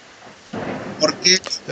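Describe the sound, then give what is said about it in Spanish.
Steady rain hisses with a low rumble of thunder swelling in, heard from indoors, while brief bits of a voice cut through near the end. “oigan, disculpen, mete el ruido de la lluvia al, al micrófono?”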